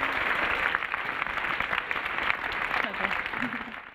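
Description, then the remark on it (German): Sustained audience applause welcoming Verena Bentele, president of the VdK social association in Germany: a dense, steady wash of clapping at fairly even loudness for several seconds, with faint murmuring voices mixed underneath. “Bitte begrüßen Sie mit einem medaillenverdächtigen und integrativen Applaus Verena, Verena Bentele.”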